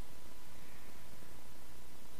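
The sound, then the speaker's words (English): A voice imitates the black and the white heads of the dragon Tiamat hissing instinctually: a steady, breathy hiss held for about two seconds at even, moderate loudness, with no words spoken. “So Tiamat sees very clearly sees what's going on, and the the the the, the black and the white heads on either side give this sort of hissing sound instinctually”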